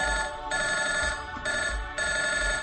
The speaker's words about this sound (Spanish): De repente, de la nada, estás acostadito y suena tu teléfono.